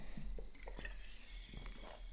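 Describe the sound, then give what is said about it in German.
In a home office, someone takes a sip of water: faint clinks of a glass and a few soft, wet gulping sounds over a steady low hum, with no talking. “Ich nehme jetzt mal schnell einen Schluck Wasser.”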